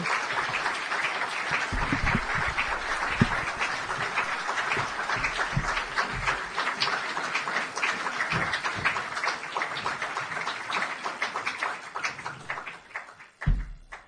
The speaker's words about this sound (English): Well, the applause usually lasts till you get to the microphone, so thanks for that.